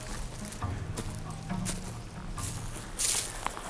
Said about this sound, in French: Ouais, le, craquement des feuilles et du bois sec.